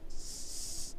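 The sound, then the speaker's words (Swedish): A squeezed toy shark gives a weak, breathy squeak, more an airy hiss than a proper squeal, lasting just under a second with no talking. “eh, ska vi trycka på spoilerhajen?”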